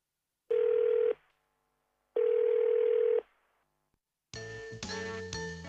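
While calling a telephone service hotline, two long steady telephone ringback tones, each about a second, separated by a pause, followed by a brighter, busier electronic line signal that cuts in loudly. No voices.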